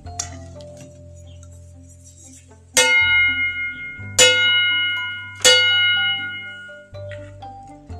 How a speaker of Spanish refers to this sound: A lo lejos se oían las campanas del pueblo.